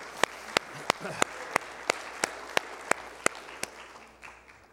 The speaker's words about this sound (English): Let's give the Lord a hand clap, please, together one more time.